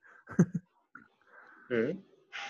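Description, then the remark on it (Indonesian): A short, low, croaky burp from a person feeling slightly bloated and unwell, followed by breathy throat noises and a brief exhale, with no clear speech. “maaf sorry sendawa gue gua lagi agak masuk angin soalnya”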